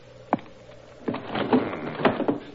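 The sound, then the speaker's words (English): A window in a card room is pulled shut, starting with a single sharp knock, then a rough wooden scrape and rattle that slides for about a second before a final click. No speech. “I see the window's still open.”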